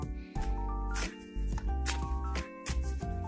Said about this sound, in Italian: e allora chiediamo ancora ai tarocchi vi metto le carte più su così le vedete meglio vi metto ancora carte e andiamo a vedere